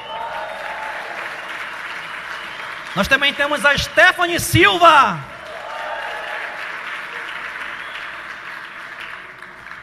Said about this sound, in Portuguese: uma salva de palmas.